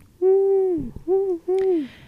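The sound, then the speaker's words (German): A person imitates an owl with three sustained, slightly falling hoots, a long one followed by two shorter ones, fairly loud with brief pauses between. “Also, ähm, das eine Eule Stimmt. Ich wollte eigentlich so wuhen,”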